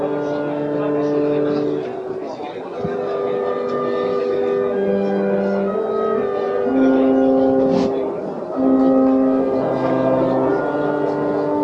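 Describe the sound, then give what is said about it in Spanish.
A trio of processional chapel music plays slow, sustained reedy chords, the notes shifting in a solemn, steady melody at an even moderate loudness throughout, with no talking over it, accompanying a procession with a float of the recumbent Christ on calle Almenas. “Seguimos con esos sonidos de trío de música de capilla.”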